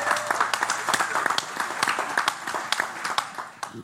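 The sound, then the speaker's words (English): Steady audience applause welcoming a married couple, many hands clapping in a dense, continuous patter with sharper individual claps popping out, moderately loud. “Let's give them a hand.”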